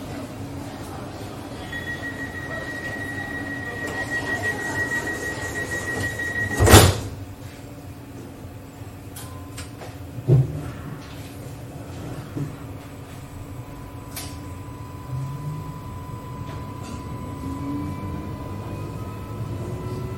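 Inside a Sydney city tram, opened in 2020 and running along a main city street toward Randwick via Central, a low steady rumble and hum run throughout, with a sharp door clunk around the middle and a second thud shortly after, and a faint tone lingering in the background.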